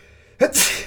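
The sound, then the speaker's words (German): A single sharp sneeze: a brief inhaled catch followed by a loud, breathy burst, with no talking. “Gesundheit.”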